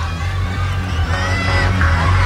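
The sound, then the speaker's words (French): A displeased crowd of people shouting and jeering loudly, a continuous, dense roar of many voices over a steady low rumble, sustained throughout. “Et ils gueulent, les gens, ils sont pas contents.”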